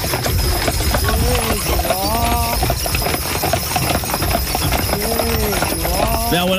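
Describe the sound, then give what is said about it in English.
Horses pulling a carriage on a carriage ride clip-clop steadily, hooves tapping in a continuous rhythm, while the driver calls out drawn-out, sing-song commands to the horses, like a 'he' and a 'haw', in two bursts over a constant background hum. “When you went on the carriage ride, that you could. This is what it sounded like, and this is really cool.”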